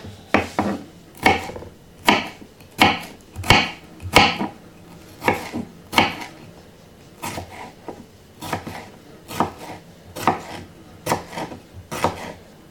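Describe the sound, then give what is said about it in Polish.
A knife chops a bell pepper, first into strips and then into cubes, on a cutting board, giving about fifteen sharp, crisp taps in a steady, slightly uneven rhythm with brief pauses between bursts. No one speaks. “i pokroję w kostkę. Najpierw w paseczki i w kostkę.”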